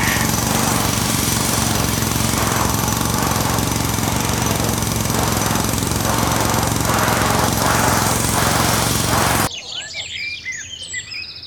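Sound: construction noise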